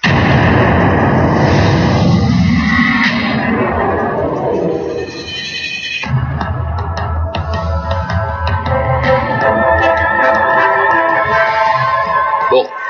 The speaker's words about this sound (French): Voilà, c'est parti, jingle.